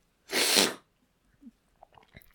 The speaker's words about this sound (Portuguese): Fungar outra vez.